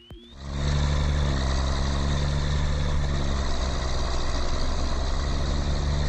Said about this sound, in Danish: Ej, sagde du traktor? Det er rigtigt. Nå, okay. Ej, okay. Godt gættet.